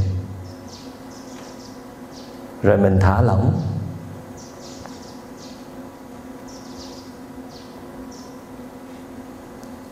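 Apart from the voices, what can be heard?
birds singing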